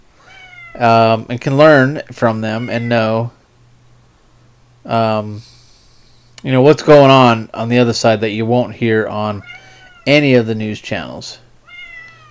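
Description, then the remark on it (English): A cat that has been locked out meows repeatedly, muffled from behind a closed door, while a person talks steadily in the foreground over a low hum. “I've locked him out and now he's whining underneath the damn door.”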